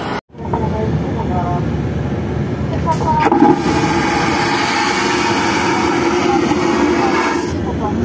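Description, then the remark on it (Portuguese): Constant, loud roar of a TAP airliner's engines running on the apron beside someone walking to a Ryanair plane, a deep steady rumble with a brighter, hissing whine that swells through the middle and then eases back. “Esta parte é para quem nunca teve a oportunidade de estar à beira de um avião da TAP a fazer barulho enquanto vais para o avião da Ryanair, está bem?”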